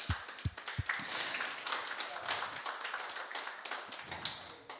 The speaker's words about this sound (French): Est-ce qu'on peut applaudir ce matin